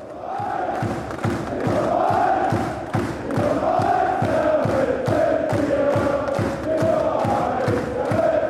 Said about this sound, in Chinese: 德国队这几年的表现的确非常的生猛，我们来听听人家球迷的呐喊